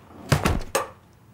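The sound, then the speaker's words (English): A door swings shut: a few quick knocks and rattles from the handle and latch, then a firm thud as it closes, followed by quiet. No one speaks. “I'm closing the door.”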